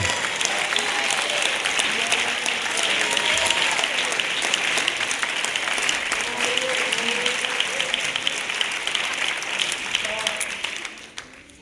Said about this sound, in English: Come on, clap your hands to the Lord.